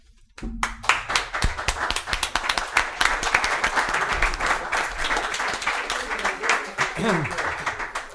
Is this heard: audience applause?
yes